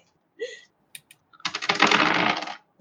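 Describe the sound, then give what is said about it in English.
A handful of dice dumped onto a desk at the start of a game clatters in a dense, rattling burst lasting about a second, preceded by a few isolated clicks and taps. “And then the first thing I do when I start this game is just dump all my dice all over my desk.”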